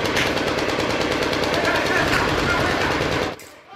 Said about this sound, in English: They'd stopped the first bomber before he reached the entrance to our building, and by now, every weapon within reach was firing.